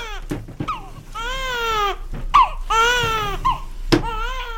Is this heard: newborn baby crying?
yes